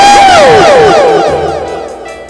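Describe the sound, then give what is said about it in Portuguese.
A crowd of people shouts loudly together after midnight, many overlapping voices rising and falling in pitch, a burst of yelling that gradually fades over a couple of seconds. “É muito tarde pra ficar gritando.”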